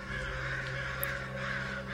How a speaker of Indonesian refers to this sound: Selama dalam perjalanan, kami melihat burung-burung aneh yang mungkin saja itu berasal dari kampung Bolodemit. Burung-burung itu terus berterbangan menuju sebuah tempat yang memang menuju ke sebuah tempat.